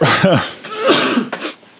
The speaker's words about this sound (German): immer in die Armbeuge niesen, habe ich gelernt.